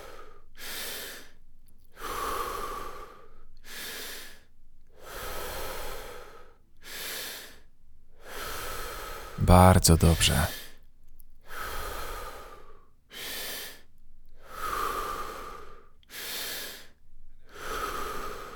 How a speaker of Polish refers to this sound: Skup się na oddechu. Niech powietrze wędruje przez brzuch i klatkę piersiową, aż do głowy. Wdech, wydech, wdech, wydech.